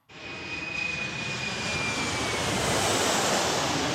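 airplane engine

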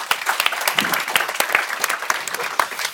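audience applause

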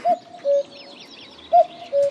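bird call

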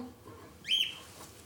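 pet bird chirping

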